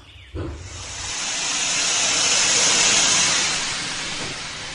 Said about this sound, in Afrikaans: Ek het vir Tini trein hoor aankom.